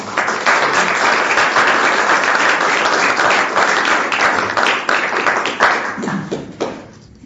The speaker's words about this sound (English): I'd like to thank our speakers and participants for sharing their experience, strength, and hope. I'm going to give our panelists another round of applause.